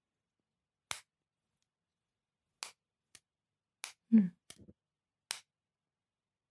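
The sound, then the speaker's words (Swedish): About five sharp snapping clicks at irregular intervals as the lid of an AirPods charging case is flipped open and shut, with a brief low murmur from a voice midway. “Är klickande med airpod-fodral det nya leka med tändare? Jag har ett airpod-fodral här.”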